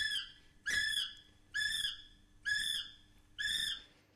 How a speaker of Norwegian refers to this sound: Sånn her høres en kiwifugl ut.